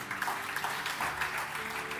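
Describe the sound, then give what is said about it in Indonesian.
An audience claps hands together to show agreement at the speaker's call, a dense, steady wash of many overlapping claps at moderate loudness that continues evenly for the whole two seconds, with no voices heard. “Yang setuju berikan tepuk tangan.”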